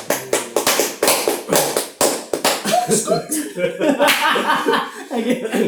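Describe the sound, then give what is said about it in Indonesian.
A small group breaks into brief, brisk hand clapping for an employee about to graduate, the sharp claps fading after a couple of seconds into laughter and lively chatter with a few stray claps. “Boleh tepuk tangan dulu dong.”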